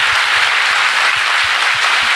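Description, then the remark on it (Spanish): A stand-up comedy audience at Teatro Picadilly applauds steadily, a dense, loud wash of many hands clapping at once with no voices breaking through. “Creo que voy a pedir un aplauso para todos ustedes.”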